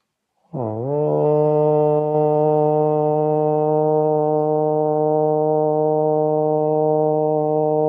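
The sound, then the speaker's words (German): A single Om mantra chanted aloud during a heart chakra meditation, sung as a low, steady drone with a rich, buzzing tone, held unbroken for about seven seconds after a brief upward scoop at the start. “Aufmerksamkeit auf Ihr Herzchakra und wiederholen Sie laut zweimal das Mantra Om.”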